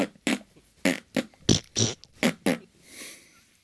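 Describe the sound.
Someone blows a rapid string of about seven short, sputtering raspberry fart noises with their mouth, fairly loud, ending with a softer, breathy puff.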